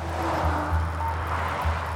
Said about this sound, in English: And the other thing that I completely love actually in this section is that car sound effect when she hangs up on Thomas. Um, I actually recorded that sound on what we call an A road in the UK.